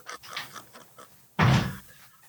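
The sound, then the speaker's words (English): Faint shuffling and rustling, then a door that had been wide open swings shut with a single loud thud that rings briefly before fading into quiet. “Oh, I'm sorry, and I have this door wide open.”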